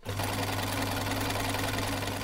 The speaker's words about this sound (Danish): Det er lyden af en symaskine.